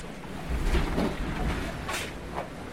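A sailboat sailing close-hauled into a force 7 wind during a race, heading toward the Irish coast, with a steady roar of gusts and wind noise, low hull thumps and rushing water, and bursts of spray hissing past.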